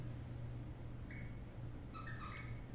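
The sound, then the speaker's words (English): A dog out in the hall in the living room gives a few short, high-pitched squeaks, one brief squeak followed by a quick cluster, faint over a steady low electrical hum. “Can you hear that little squeaking?”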